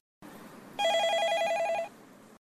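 A telephone rings for an incoming call on a call-in programme, a rapid trilling electronic bell lasting about a second, fairly loud and clear over a low background hiss, with no one speaking.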